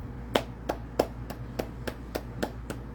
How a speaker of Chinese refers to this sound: 拍拍手。